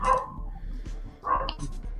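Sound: dog barking outside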